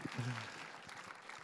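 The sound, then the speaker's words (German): An audience claps in a steady, dense wash of applause for a couple who have been married for 45 years. A brief low voice sounds at the very start, and the clapping continues evenly to the end. “Und ja, das ist auch ein Applaus wert.”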